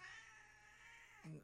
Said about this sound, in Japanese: 猫が鳴いている猫が飛び跳ねている